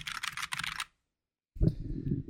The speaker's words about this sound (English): so what's what's so cool about a mechanical keyboard? Um, so it is uh, precise. Yes, and it will uh, the input lag from when you're pressing a button. It's a little bit more um, noticeable or intensive when you're playing like a game or something.